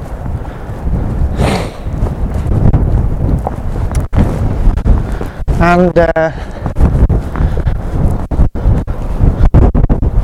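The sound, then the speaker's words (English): Heavy, continuous wind buffeting and rumbling against the microphone outdoors on a very windy day, loud low-end roar with sharp gusty thumps, while a photographer speaks briefly through it. “because it's so disastrously windy still I'm not going to go up where I was going to go I'm going to try and find somewhere a little bit more sheltered”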